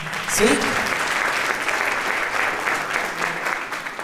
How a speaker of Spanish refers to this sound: Así que les daremos un fuerte aplauso a ellos más.